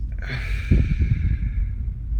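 A long, steady breath let out slowly through the mouth during a breathing exercise (breathe in for four, hold for two, release for six), a soft airy hiss that holds even for a couple of seconds before trailing off, with no talking.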